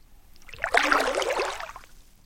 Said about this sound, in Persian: سوار قایقاتون بشین پارو میزنیم از تو دریاهای متلاطم میریم تو ساحلهای آروم